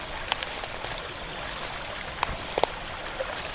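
A stream flows steadily by a riverbank with a soft, continuous watery rush, broken now and then by brief little splashes and trickles. It's fairly quiet and there are no voices.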